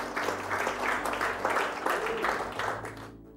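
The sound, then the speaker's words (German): Church audience applause for the people at the church's other locations in Tottenau and Thielen: a dense, steady wash of many hands clapping for about three seconds, moderately loud, then fading out at the end. No one speaks over it. “Lass uns mal den Applaus geben, die wir nicht sehen.”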